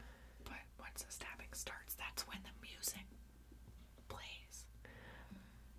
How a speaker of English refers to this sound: You were just whispering a whole bunch. I don't even know if the microphone heard you.